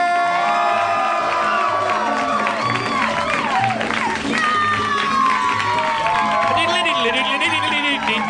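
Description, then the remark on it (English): A lively live audience at a Harmontown show at the Meltdown cheers, whoops and shouts continuously as Dan Harmon is welcomed to the stage, with high-pitched voices rising above a steady roar and some clapping mixed in, loud throughout without letting up. “It's it's, a, it's actually a lively crowd.”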